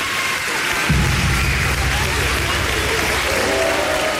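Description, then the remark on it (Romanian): A crowd bursts into sustained applause, dense steady clapping that holds at an even loudness for several seconds, with a low rumble of cheering voices underneath. “noi, sigur, uh, ridicăm din uh, sprânce aplauze, tot ce trebuie, îți dai seama, bravo!”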